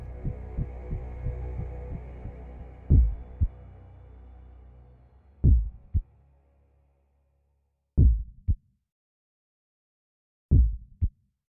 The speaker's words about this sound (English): But for many minutes, the heart beat on with a muffled sound. This, however, did not vex me. It would not be heard through the wall.